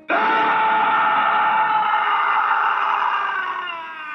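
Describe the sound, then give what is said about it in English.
A single agonizing scream in a film scene, let out by a burnt, presumably dead body at the site of an accident with an overturned, burning VW bus, loud, bursting out suddenly and held for about four seconds with a strained, wavering pitch before tapering off slightly at the end. “When he inspects the presumably dead body, it lets out an agonizing scream.”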